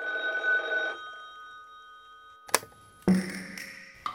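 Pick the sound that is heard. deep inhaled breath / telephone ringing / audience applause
telephone ringing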